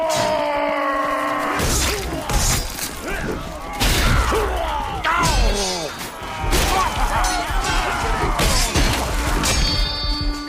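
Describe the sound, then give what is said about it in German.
Video game melee combat with a heavy blade: repeated sharp metallic clashes of swords striking each other and heavy impacts as hits are dealt and taken ring out in quick, irregular bursts, loud, over a dense background of battle noise. “So eine schwere Klinge zu führen, Treffer einzustecken oder auch auszuteilen, die Schwerter aufeinander klirren zu lassen, das ist einfach super toll umgesetzt.”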